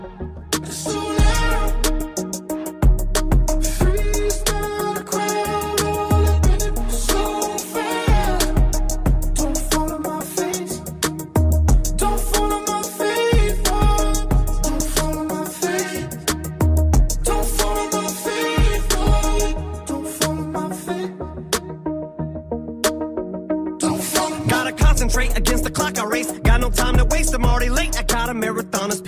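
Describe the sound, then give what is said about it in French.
A rap track plays on the radio, loud and steady, driven by a heavy, punchy bass beat under a dense, continuous musical backing, with a brief thinning of the mix near the end. “Et juste avant le son que vous entendez derrière moi, il fait son grand retour.”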